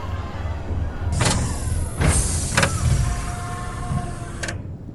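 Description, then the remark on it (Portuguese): A Pelican-type spacecraft descends from the sky with a loud, steady high-pitched whine over a broad engine roar, punctuated by a few sharp mechanical clacks. No voices. “Do céu, uma nave do tipo pelicano desceu, fazendo um barulho agudo que criou caos e espanto em minha multidão”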